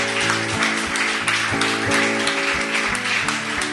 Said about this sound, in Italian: Un applauso quindi, al nostro pubblico eh, che anche stasera è, è meraviglioso, meraviglioso. Grazie.